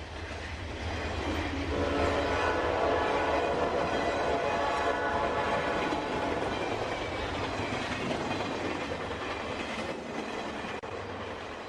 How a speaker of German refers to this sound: Ich befinde mich in der Bahnhofshalle im Bahnhof Lettmate, der seit 2015 als sogenannter inklusiver Bahnhof bekannt ist